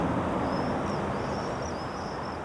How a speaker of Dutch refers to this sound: De volwassen gierzwaluwen vliegen ons om de oren in deze topstraat in Amsterdam-Noord. En die hoor ik natuurlijk wel.